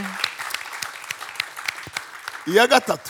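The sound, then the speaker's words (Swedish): A crowd claps steadily for God, a dense patter of many hands at moderate loudness, and near the end a voice calls out over the clapping. “Vi ger Gud applåder.”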